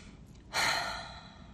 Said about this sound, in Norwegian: Og bare start med disse dype, rolige pustene for å lande litt. Kanskje puster du inn med nesen og ut med munnen.